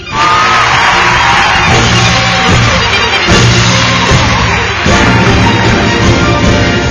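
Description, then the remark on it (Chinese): Steady, loud audience applause as Dr. Hai takes the stage on the Ocean Live Show, a dense wash of clapping mixed with whoops and cheers from the crowd, holding at an even level without a break. “这个海大夫上台，掌声自然来。”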